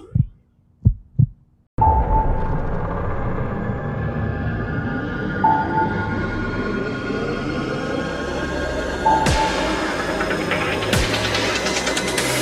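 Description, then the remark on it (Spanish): A few deep, muffled heartbeat thumps sound alone at the start, then a loud, steady rumbling drone with a humming tone takes over and fills the rest. “Tu latido.”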